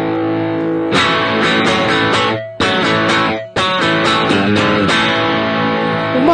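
Heavily overdriven electric guitar chords ring out loud, strummed in bursts with two brief breaks, thick saturated tone throughout and no talking, played through distortion with the drive knob turned fully up.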